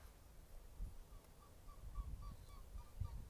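Swans honking repeatedly as they fly overhead in a steady series of short calls, fairly faint, over low rumbling outdoor noise with no talking.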